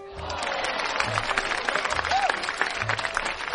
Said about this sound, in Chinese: 鼓掌。